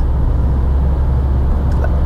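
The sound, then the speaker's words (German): The turbocharged three-cylinder engine of a front-wheel-drive Dacia car drones loudly and steadily from inside the vehicle as it accelerates, a deep rumble with road noise that holds an even level throughout, with no voices. “Eine leichte Verzögerung, und dann schiebt er aber wirklich richtig an.”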